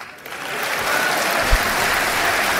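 Sustained applause from a large audience in the auditorium of the Centro de Congressos do Estoril, packed full with people standing, a dense, even wash of clapping that swells slightly after the start and holds steady, with no voices standing out.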